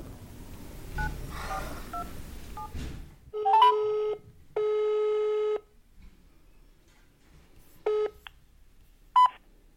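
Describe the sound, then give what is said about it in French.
After a stretch of low rumbling noise, short electronic telephone dialing tones sound as someone phones to ask for help, then a steady ringing tone of about a second. A couple more brief beeps follow over near silence. “Cette fois, à moi de prendre le téléphone, à moi de demander de l'aide.”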